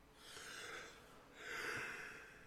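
A quiet, breathy yawn: a long airy inhale followed by a fuller drawn-out exhale, heard alone with no talking, soft.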